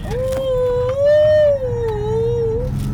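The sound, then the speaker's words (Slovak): Front car tires squeal while drifting: a loud, sustained, whining screech lasting about two and a half seconds, its pitch wavering slightly up and down over a low rumbling background. “Akože skvíkajú predné gumy.”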